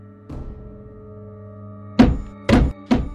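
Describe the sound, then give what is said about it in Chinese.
Three heavy, booming stomps on a wooden floor land in quick succession, each a loud dull thud, with a steady low hum underneath. “有人跺了跺地板，荣月紧张的颤抖，江人也缩紧了自己怀抱的力度。”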